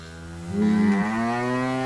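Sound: cow mooing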